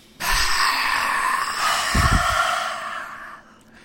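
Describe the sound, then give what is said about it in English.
A single long, forceful breathy exhalation, a lion's breath in a yoga breathing exercise: a broad rushing hiss lasting about three seconds with a rough throaty burst midway, then fading out. “Lion's breath out.”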